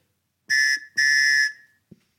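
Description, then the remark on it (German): Two loud, steady blasts from a small toy choo-choo train whistle in quick succession, the second longer, with bright chord-like harmonics, followed by a soft click; blown as a jingle. “Das ist doch genau das, was du unter Fix. einer Chu-Chu-Pfeife vorstellst, oder?”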